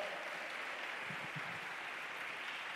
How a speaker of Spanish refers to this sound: ¿Cuántos dicen amén? ¿Cuántos lo creen? Aplaudan, aplaudan fuerte.